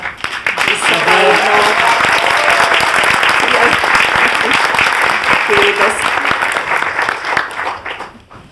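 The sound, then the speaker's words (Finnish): Sustained applause from a crowd, given in thanks for an earlier piano music performance. It is a dense, steady clatter of clapping that holds loud for about eight seconds before tapering off, with a brief spoken word heard over it. “Ne, jotka tuli ajoissa, niin kuuli myös aivan mahtavaa pianomusiikkia ja siitäkin annetaan nyt aplodit ja kiitokset”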